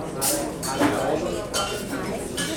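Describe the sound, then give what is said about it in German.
Busy restaurant ambience with dishes and cutlery clinking and clattering repeatedly, bright metallic and ceramic hits over a steady murmur of indistinct voices. “Sie stehen an der Bar oder essen ihr Menü in einem Restaurant, eingetaucht in ein Gewirr von Stimmen und Geräuschen. Sprechen, husten, Geschirr klappern, Besteck scheppern.”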